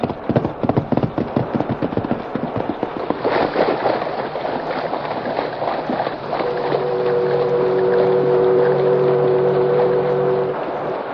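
A boat's engine on a river chugs in quick rhythmic pulses over a wash of churning water, then settles into a loud, steady drone with a sustained whistle-like tone.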